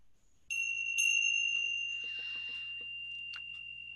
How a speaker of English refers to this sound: In a moment, I'll ring the bell three times.